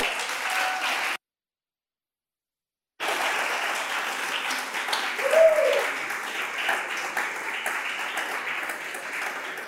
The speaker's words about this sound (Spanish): Dele fuerte el aplauso al Señor si se lo va a dar.